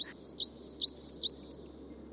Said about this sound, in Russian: Их песня тоже постепенно изменялась и становилась более затейливой, поэтому пение европейского подвида звучит совсем не так, как пение его гималайского предка.